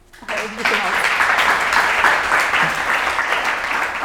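An audience bursts into steady applause to welcome a guest, many hands clapping in a dense, sustained wash that holds at an even loudness for a few seconds before cutting off.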